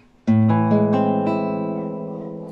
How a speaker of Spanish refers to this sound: Está el menor séptima mayor, que es una tristeza con algo clavado adentro, suena así